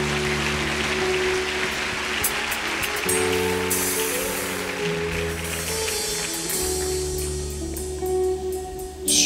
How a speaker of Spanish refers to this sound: Gracias a los nueve. Den un aplauso a los nueve que se fueron con los sacerdotes.